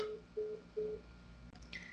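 A phone call ringing tone pulses in short, evenly spaced beeps, three of them at a steady pitch, fairly quiet and heard alone with no one speaking, as the call goes unanswered.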